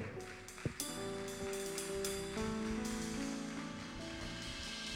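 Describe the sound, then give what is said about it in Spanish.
Steady, dense applause from a large crowd at a church service, applauding a preacher, fills the whole stretch, a continuous clattering wash, with sustained musical tones humming underneath. “Vamos, aplauda más fuerte, por favor, vamos.”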